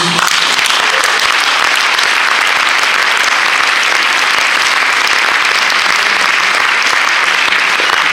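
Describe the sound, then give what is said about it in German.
Sustained applause from an audience, a dense, steady wash of clapping that stays loud and even for the full eight seconds with no pauses or speech over it. “Der Applaus geht nicht an mich, der geht an Ken Jebsen, dem ich natürlich gratulieren möchte, weil er eine Medienrevolution durchzieht.”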